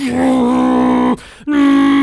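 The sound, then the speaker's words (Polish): A voice imitates the engine of a fast car appearing in a film roaring by: a sustained, buzzy, steady-pitched vocal drone, broken by a brief breath, then resumed just as loud and strong. “Mm Y, jak tylko nawet na chwilę zwalnia, to za chwilę pojawia się szybki samochód, który robi”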